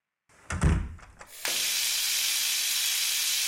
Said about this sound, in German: gehen Sie direkt ins Badezimmer und drehen das Wasser auf.